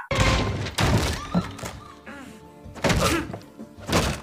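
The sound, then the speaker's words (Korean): Heavy thuds and blows from the karaoke room fight scene in the Korean film The Gangster, the Cop, the Devil (Akinjeon) land in several loud bursts at irregular intervals, with a low tonal background humming between the impacts. “악인전에서 노래방 액션씬이 나오고 있는데”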